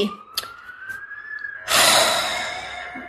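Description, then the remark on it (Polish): A police siren wails with a slowly rising tone, then swells abruptly into a loud blare that holds and gradually fades. No one speaks. “powiedziałeś coś złego o NBC i policja teraz po nas jedzie.”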